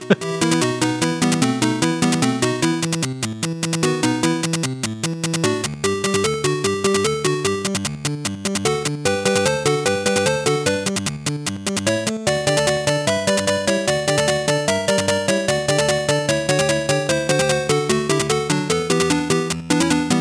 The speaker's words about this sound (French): Donc c'était Tetris, la musique.